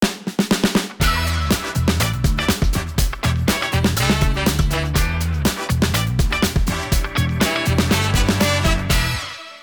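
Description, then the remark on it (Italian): An upbeat theme tune opens with a few quick taps, then bursts into a full, loud band groove with punchy drums and heavy bass, driving steadily for several seconds before cutting off. “Sigla.”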